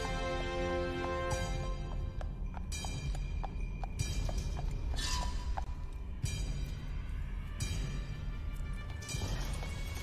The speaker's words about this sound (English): Yeah. Horsey sounds.